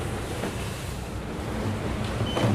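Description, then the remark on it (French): A sailboat surfing at 15 to 20 knots toward Cape Horn broaches and nosedives in heavy waves as a squall passes, with a dense, constant roar of rushing water and wind buffeting the hull, swelling slightly toward the end. No voices. “A ah, enfourné, mais il s'est arrêté.”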